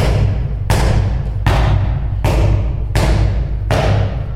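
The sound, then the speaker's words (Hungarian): A handball is bounced on a floor about six times in a steady, even rhythm during handball training, each bounce a loud, sharp thud, with no talking. “Ugyan mutasd, hogy hogy pattogtatod, légy szíves.”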